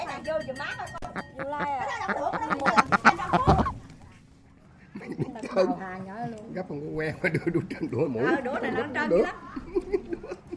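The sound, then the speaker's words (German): A duck waiting to be cooked quacks in a string of harsh, nasal calls, mixed with people talking and a brief clatter of dishes as women wash up on a warm Sunday morning, then a short lull before the voices resume. “Eine Ente wartet geduldig auf ihre Zubereitung.”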